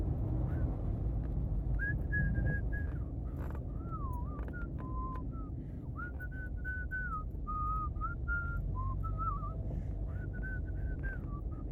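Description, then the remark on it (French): A person whistles a simple wavering tune while exhaling, the clear notes rising and dipping over a steady breathy rush of air throughout. “Ça, c'était en aspirant et en soufflant.”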